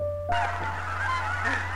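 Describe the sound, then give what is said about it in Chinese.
Seagulls by a pier squawk in a harsh, overlapping chorus that starts abruptly and carries on without pause, loud cries rising and falling over a steady low hum. “这边当然也不行，海鸥嘎嘎的叫声一刻都没有停过。”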